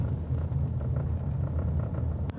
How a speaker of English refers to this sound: okay and we're back um, they're stripping this road and it was an awful sound which I can imagine only sounded worse where you're sitting